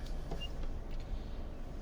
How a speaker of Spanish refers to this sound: Eh, yo voy grabando desde el coche. ¿Qué coche tengo? Un Nissan Juke.